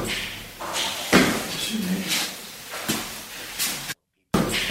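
A chair is set down on a hard floor, giving a few dull thuds and knocks spread over several seconds, with soft shuffling and scraping between them in a room.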